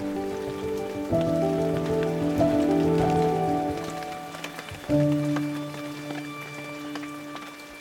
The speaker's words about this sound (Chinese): 嗯，现在淋了凉凉的雨，回家后再洗个热水澡，喝碗红豆汤，今天真开心啊！